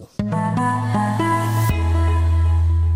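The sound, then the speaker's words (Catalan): A brief sonic logo for the airline Vueling: a few bright, rising synthesized notes stack into a sustained chord, then settle onto a deep, steady held tone. Clean and loud, with no voices. “Vueling.”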